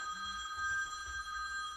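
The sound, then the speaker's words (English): A phone rings with a steady, bright electronic tone that holds continuously for the whole moment, fairly quiet, with no one speaking over it. “Sorry, thought I had put You're that good. on vibrate.”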